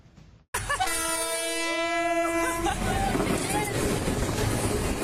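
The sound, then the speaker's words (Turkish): A train's horn blares loudly for a couple of seconds, its stacked harmonic tones ringing out over the rumble of the train rushing past a level crossing in the Pozantı district of Adana, Turkey, and the roar of the passing cars carries on afterward. “Hemzemin geçitte öz çekim yapan kadınlardan birinin koluna işte böyle tren çarptı.”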